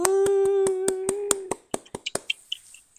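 A short burst of steady, rhythmic hand clapping welcoming a guest, about a dozen sharp claps that grow sparser and quieter toward the end, with a sustained pitched tone running underneath during the first half.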